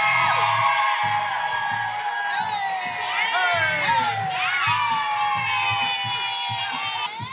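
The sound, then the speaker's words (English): A live show audience cheers and whoops loudly and continuously as the hosts are introduced, with high-pitched screams and shouts layered over a dense roar of many voices, energetic throughout. “We need more energy than that.”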